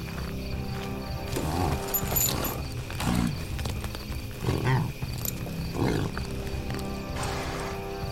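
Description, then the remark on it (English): A horse's hooves clop along at a steady trot across open prairie land, the rhythmic footfalls over a continuous low rumble, with no one speaking. “Mounting my nameless horse, I silently struck back out upon the endless prairie lands past the dark ruins of the madhouse and the smoking fire pit choked with bodies.”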